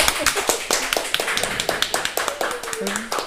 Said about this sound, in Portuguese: Vamos aí, todo mundo, uma salva de palmas pra Isa.